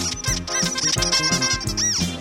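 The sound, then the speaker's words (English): A rubber duck toy squeaks repeatedly in high, wavering bursts, fairly loud, riding over a steady backing of music with low bass notes. “I always get a silly squeak when I play the blues.”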